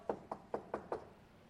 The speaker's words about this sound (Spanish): ¿Cuántas veces yo un poco tomado él llegaba a mi casa a buscarme. Y tocaba la puerta y, tú sabes, ¿no?